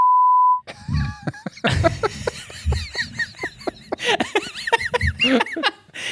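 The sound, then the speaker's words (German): A single steady censor bleep sounds for about half a second, loud and clean, followed by several people breaking into lively laughter and chuckling. “Aber ich muss es wahrscheinlich piepsen, das fürchte ich mich schon.”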